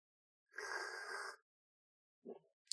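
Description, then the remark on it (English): A loud slurping sip of espresso from a cup, lasting about a second, then a short soft breathy sound after a brief pause. No one speaks. “Insert pause here so I can sip at my espresso.”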